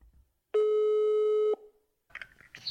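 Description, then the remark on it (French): A single steady telephone ringing tone of an outgoing call sounds for about a second, loud and clear, then falls silent before some faint, muffled noises follow. “Coup de fil”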